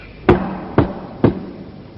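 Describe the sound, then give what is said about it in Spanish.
Three sharp knocks on a door, evenly spaced about half a second apart, each a loud dull thud with a brief ring, over a quiet background and no talking. “llamaron a su puerta.”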